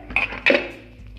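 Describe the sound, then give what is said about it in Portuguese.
A metal pot lid clanks onto a pan of frying chicken, two quick metallic knocks a moment apart, with a faint ringing afterward and no voices. “Aí vocês pegam uma tampa, uma tampa, né? A tampa da panela.”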